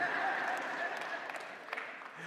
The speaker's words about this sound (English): Come on, one person with a clap. I hear you.